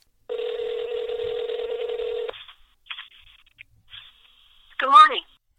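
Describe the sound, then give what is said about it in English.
A steady telephone tone holds for about two seconds, followed by a few short, spaced keypad beeps as someone dials to call their mom, then a brief louder warbling burst at the end. “time to call mom.”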